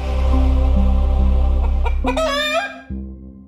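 A chicken clucks loudly: a buzzy, drawn-out call that rises into a sharp, squawking burst near the end. No voices are heard.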